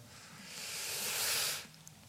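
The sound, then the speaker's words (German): A snake's long, airy hiss swells steadily for about a second and a half, then cuts off abruptly, leaving a brief quiet with a faint click at the end. “Also sie ist wirklich gut im Timing, die Schlange.”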